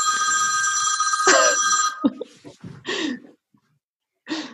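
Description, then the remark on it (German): A telephone rings loudly for about two seconds, a steady electronic trill, then cuts off and gives way to a few short breathy gasps and vocal bursts with brief silences. “Ich glaube, jemand äh, muss die Telefone kappen.”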